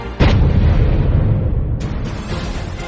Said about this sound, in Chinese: 再次响起一声清脆的枪声，敌人的狙击手与师傅都应声而倒。